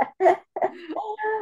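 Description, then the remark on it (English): A quick sneeze in two short, breathy bursts, followed by a drawn-out voiced groan that holds a steady pitch before fading. “oh bless you”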